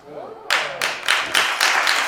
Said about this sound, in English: Oh my God, this guy is clapping like, should I be clapping at this? Look at the face this cat makes. This guy makes a face like, should I be clapping at this? He's like, I don't know. I don't know if this is something I should be clapping at.